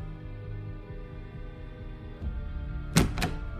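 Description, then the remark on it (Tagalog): A practice room door is opened with two quick, sharp clunks near the end, over a steady, low humming drone that fills the background throughout. “Nang buksan ko ang pinto, mas lalo lang pong lumakas yung tunog.”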